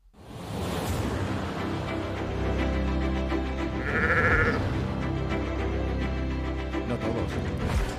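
A flock of sheep bleats continuously, many overlapping calls fairly loud, forming a dense, steady chorus with no speech.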